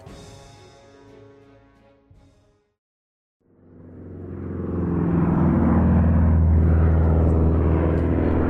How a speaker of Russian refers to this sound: Аэродром под городом Энгельс – Самолеты беспрестанно взмывают вверх и также неустанно встречают взлетно-посадочную полосу.